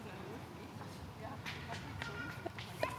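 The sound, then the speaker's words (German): A child's quick running footsteps patter past, a rapid uneven series of soft thuds over a busy outdoor background with faint voices. “Rennendes Kind.”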